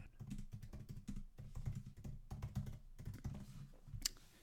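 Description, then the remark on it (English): Rapid, steady typing on a computer keyboard, with a continuous clatter of keystrokes and no voices. “I don't know if you are my keyboard talk, uh, typing, but.”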